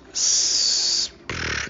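A loud sneeze with a long hissing burst, then a short pause and a second breathy burst right after. No talking.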